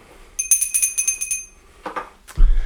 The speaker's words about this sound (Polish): To zaczniemy najpierw od dzwonka.